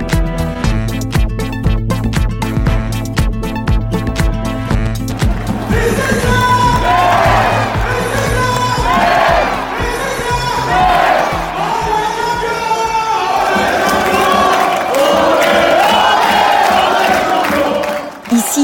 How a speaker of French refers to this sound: C'est ce que scandent les supporters que vous venez d'entendre. Nous sommes le 17 mai 2019. Le FC Metz est sacré champion de Ligue 2 et remonte en première division.